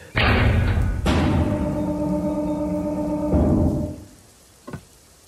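heavy rain

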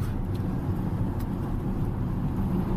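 car interior road noise

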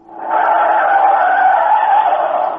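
car tires skidding

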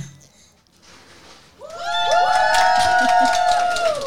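audience cheering

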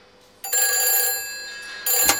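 telephone ringing

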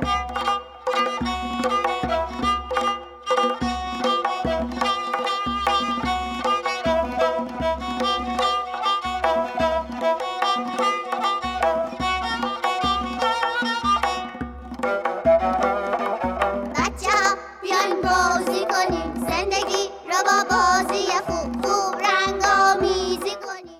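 music

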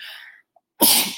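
sneeze

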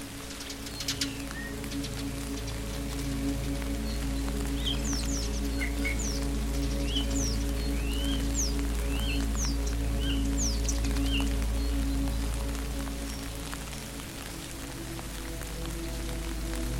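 rain falling on surfaces

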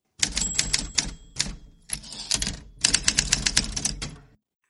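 typewriter typing sound effect

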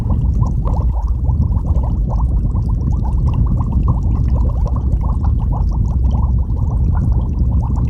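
bubbling

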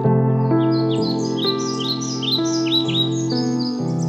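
bird singing

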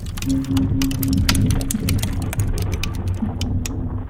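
fireplace fire crackling

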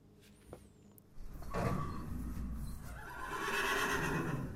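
horse neighing

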